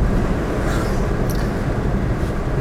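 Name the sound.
car interior noise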